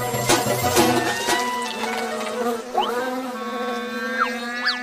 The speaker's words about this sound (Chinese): 蜜蜂为什么突然跑来围攻我呢？ 哎呀，都是因为饮料。 蜜蜂喜欢有甜味的东西。